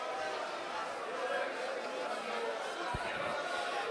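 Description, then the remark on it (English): A large church audience in Fredericton makes steady, dense chatter and lively crowd noise, many voices blending together, with one brief low thump near the end. “Come on, that's the sound of blessed people in Fredericton.”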